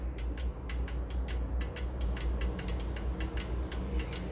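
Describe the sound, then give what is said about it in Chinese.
A Tatung electric cooker clicks and ticks in quick, irregular bursts while steaming and cooking, sharp bright taps over a steady low hum, with no one talking. “如果你家有大同电锅啊，我们台湾留学生最爱的一种家电，就是大同电锅。你对这个声音就会有点耳熟，还有那个掉起来那个声音，这个声音就是它在蒸煮的过程发出的一些掉掉掉掉掉掉掉声”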